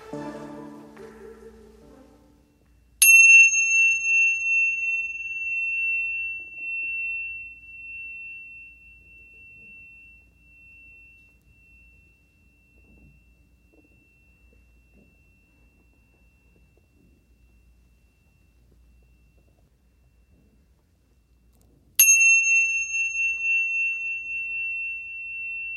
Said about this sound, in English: what Amy's going to do now is ring some chimes